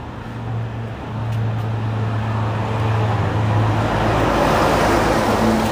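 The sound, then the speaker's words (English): A cement mixer truck rumbles past on a busy street by a hospital on a warm, cloudy day, its deep engine drone steady and loud, the roar of road noise swelling slightly toward the end. “There goes a cement mixer.”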